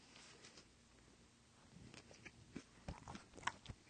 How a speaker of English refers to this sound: Ooh, ooh, dude, chewing with my mouth open sounded like a hand job.